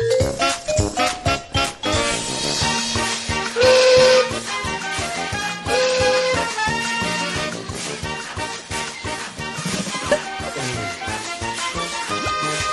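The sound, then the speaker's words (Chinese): A balloon-inflating machine, the doctor's 'wonderful balloon-inflating machine' used to hand out balloons on balloon day in Mickey Mouse Clubhouse, hisses and whistles in two loud bursts over busy, bouncy music full of rhythmic clatter and tooting tones; no one speaks. “这是我的美妙膨胀气球机，拿一些好吧？”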